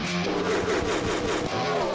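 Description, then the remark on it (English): A loud race car engine revs on pit road at a CARS Tour race for about two seconds, a steady, dense mechanical roar with a brief dip near the end, with no voices. “We'll take this opportunity to come down Pit Road, sticker up, and we'll wrap up this edition of Stickered Up.”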